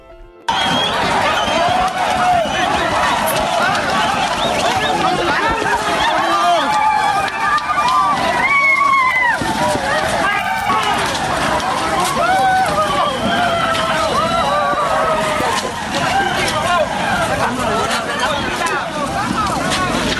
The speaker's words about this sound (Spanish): el jueves pasado cientos de personas rompieron el cerco policíaco y militar establecido en la frontera con Guatemala y en estampida literalmente lograron entrar corriendo a ese país en la zona de Corinto.